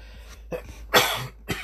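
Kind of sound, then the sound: human body sound, cough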